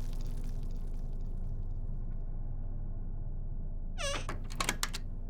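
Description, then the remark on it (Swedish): Over a steady low hum, a house door is carefully opened, creaking with a short, high squeak about four seconds in, followed by a few soft knocks and clicks. Fairly quiet, with no talking. “Jag hörde hur dörren försiktigt öppnades”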